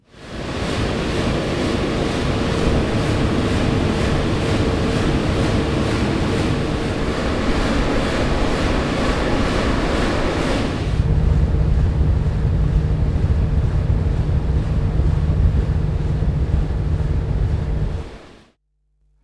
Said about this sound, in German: Ja, das klang ja wieder ganz anders. Das war die Schwungmasse. Schwungmasse 13 Tonnen drehen sich da hinten. Das ist ja urig schwer und alles. Und äh, es kam auch ein Geräusch aus dem Generator.